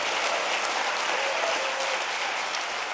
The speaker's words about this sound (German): Der langanhaltende Applaus für Shalikar machte nicht nur den unterschiedlichen Blick auf die Situation in Israel und im Gazastreifen deutlich, sondern ist auch ein Indiz für die Geschlossenheit der jüdischen Gemeinden in Deutschland